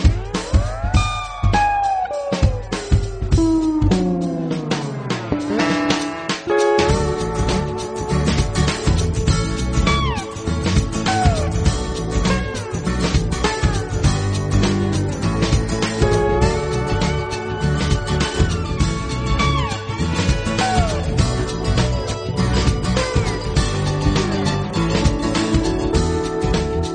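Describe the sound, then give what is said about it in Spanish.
A pop song intro plays loud, opening with sliding, almost meow-like tones before a full band kicks in with a steady driving beat, no singing yet. “Así que, bueno, ¿qué te parece si pasamos el tema y después retomamos un poco la, charlita, eh?”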